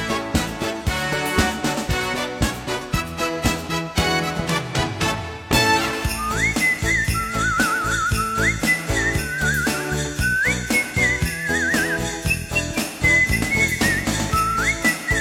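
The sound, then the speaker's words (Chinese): A busy instrumental intro gives way to a whistled melody over full band backing, the high, clear tune gliding between notes in long phrases. No one speaks. “沧海说这口哨音乐很有气氛呢。”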